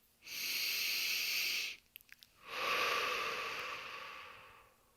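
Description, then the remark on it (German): A steady, deep breath drawn in through the nose with an airy, whistling edge, a brief pause with faint clicks, then a long, soft exhale out through the mouth that slowly fades. “Und du atmest durch die Nase ein und durch den Mund aus”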